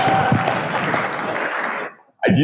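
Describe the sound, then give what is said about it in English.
A burst of loud, dense applause fills about two seconds, then cuts off abruptly into a brief silence before a voice begins speaking. “After the applause, you don't need to say anything more, right?”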